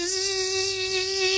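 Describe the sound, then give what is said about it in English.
A person imitates a paper shredder with a steady, continuous buzzing hum, a single sustained tone that holds the same pitch for over a second with a raspy edge and no breaks. “think that's the sound of a paper shredder. See how good that is when I do my own sound effects?”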